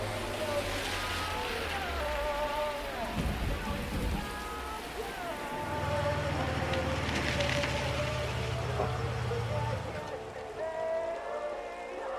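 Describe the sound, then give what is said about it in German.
A car engine rumbles as the vehicle drives along a lonely country road at night and turns into a petrol station, its low hum holding steady before cutting off as it stops at the fuel pump, over a constant rain-like hiss and some faint tonal background sounds. “Ein Wagen fuhr auf der einsamen nächtlichen Landstraße.”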